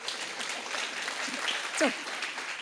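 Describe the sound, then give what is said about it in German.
Audience applause for the person who played the wall in a skit about Jesus, a steady wash of many hands clapping at moderate volume, with a brief rising whistle-like squeak near the end. “Okay, die Mauer kriegt mal jetzt einen Applaus.”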